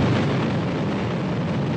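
A loud, sustained explosion roar as a white building blows up at JAXA's test site in Noshiro, Akita Prefecture, Japan, during an engine combustion test for the small Epsilon S rocket: a thick, steady low rumble with broad hissing noise above it, holding without breaks or voices.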